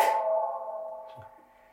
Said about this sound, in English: It is operated with echo we can play with its echo. I, I, wonder, I've never tried this. I wonder if this one has a different echo.